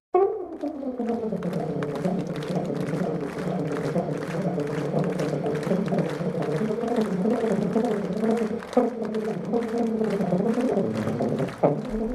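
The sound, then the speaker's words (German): A tuba player races through Flight of the Bumblebee at high speed in a world-record attempt of 53.8 seconds, a loud, continuous stream of rapid low brass notes, with sharp, arrhythmic claps punctuating the music throughout. “Der Mann, der kann schon relativ schnell mit diesem sehr klobigen Instrument umgehen.”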